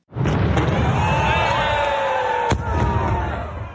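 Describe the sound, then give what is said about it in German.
A loud firework bang opens the Lucerne carnival (Fasnacht) at the Tagwache on Schmudo, going off over a dense, roaring crowd outdoors, with one sharp crack standing out near the end amid sustained noise and brass-like tones. “Den Urknall kennen wir ja schon.”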